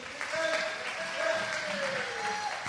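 A roomful of people applauding to welcome a guest from Serious Seeds, a steady wash of clapping that holds at an even level for a few seconds, with a faint cheer or whistle riding on top.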